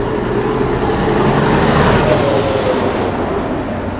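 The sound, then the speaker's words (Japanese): Several heavy trucks and passenger cars roll by on a road in a steady, loud rumble of engine and tire noise, with a brief hiss like an air brake near the end; no one speaks. Humidity is 57%. “トラックが何台もまたトラック乗用車乗用車みたいな感じで、まあ、とこういうのもねわーっと入ると思うんですけど”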